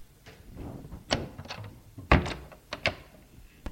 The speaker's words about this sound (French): Il partit en fermant la porte à clé.